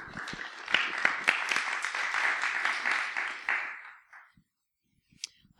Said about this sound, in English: But Duncan and Bryony for the reading, let's give them a round of applause.